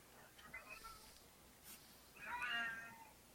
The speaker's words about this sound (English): Is that uh, Blob meowing in the back? Oh, fuck. Oh, that's whiskey.